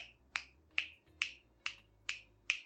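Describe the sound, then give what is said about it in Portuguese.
Six crisp finger snaps land in a steady, even rhythm, about two per second, clear with no talking, tapping out the beat (BPM) of narrator Éder Luiz's narration. “A última vez que eu tentei contar, eu bati 160 na contagem, né? Que a gente faz, não sei se quem vai ouvir, mas é aquela batida”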